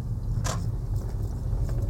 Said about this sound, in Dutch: Vandaag weer een aflevering vanuit de auto.